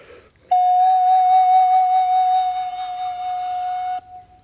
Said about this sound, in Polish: Standardowy rodzaj wibracji, czyli oddechowej.